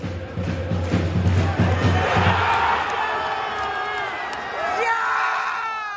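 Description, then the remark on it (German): A crowd erupts in loud cheering after a goal for the ERCI, with a priest cheering along, rhythmic low thumping early on and a dense wash of shouting and screaming voices that stays loud throughout, rising again near the end. “Tor für den ERCI und der Pfarrer jubelt mit.”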